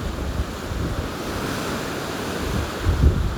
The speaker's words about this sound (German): Also hier immer die sechste Welle schlägt ein auf jeden Fall. Im Meer ist eigentlich ganz ruhig.